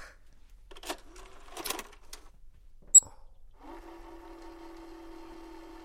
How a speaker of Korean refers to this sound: 테이 돌아가는 소리 보소. 힘겹다, 힘겨워. 비디오 플레이어는 엄마의 연구실에 있었다.